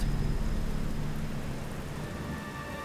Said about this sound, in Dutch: De bliksemflitsen en donderslagen volgen elkaar nu steeds sneller op. Ze worden ook harder en de tijd tussen beide is steeds korter. Het onweer komt dus dichterbij, heeft opa me nog geleerd.